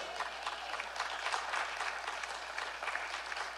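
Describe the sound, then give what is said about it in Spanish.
An audience applauds with steady, dense clapping, many hands at once forming a continuous crackling wash that holds at a fairly even level without pause. “A ver, para los que no aplaudieron, les voy a predicar de nuevo.”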